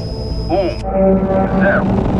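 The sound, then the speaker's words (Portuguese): Rocket engines ignite at launch after an ignition-sequence countdown from 5 to 0, roaring to life in a steady, loud low rumble, with whining electronic tones and a brief warble layered on top for about two seconds. “Motores acionados.”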